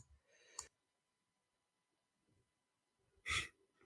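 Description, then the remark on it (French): A loud sneeze bursts out near the end after mostly quiet moments, preceded earlier by a brief sharp breathy burst; no one speaks. “Mes excuses pour euh, les écouteurs de podcast, j'éternue.”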